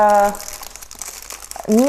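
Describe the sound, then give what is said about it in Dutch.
The plastic packaging of four fairly large Kraakman mergpijpen pastries crinkles in a steady, crackly rustle for over a second, with brief moments of a person speaking just before and just after it. “Ik heb hier van die kraakman mergpijpen. Dit zijn er vier, best wel groot denk ik.”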